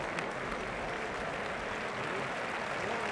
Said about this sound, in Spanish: El público aplaude ahora a Roca Rey.